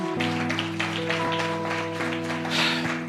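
A crowd applauds with dense, steady clapping for about three seconds, fairly close and loud, over a sustained low musical drone.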